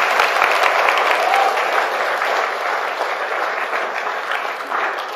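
Steady applause from an audience fills the room, a dense wash of many hands clapping at once, sustained and fairly loud for several seconds without any voices standing out.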